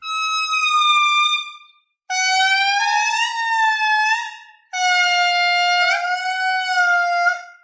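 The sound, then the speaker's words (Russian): Indri lemurs sing in chorus: three long, loud, siren-like wailing phrases with gliding, wavering pitch, the calls overlapping one another, separated by brief pauses, with no talking. “Как устроено хоровое пение лемуров индри?”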